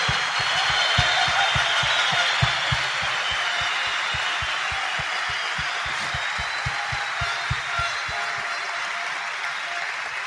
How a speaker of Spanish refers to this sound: Fuerte aplauso para ustedes.